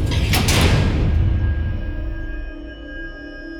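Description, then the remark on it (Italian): The heavy doors of a funfair haunted-house ride burst open with a loud, rushing sweep in the first second as a ride car carrying three friends enters on the evening of 29 October, then settle into a low rumbling drone with a faint lingering whine. No voices. “Le porte della casa si spalancarono e li ingoiarono.”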